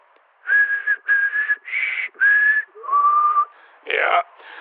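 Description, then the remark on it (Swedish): A person whistles a short tune of about six clear, sustained notes with brief gaps between them, fairly loud, the last notes sliding and breathier. “Okej, nu visslar jag vanligt då.”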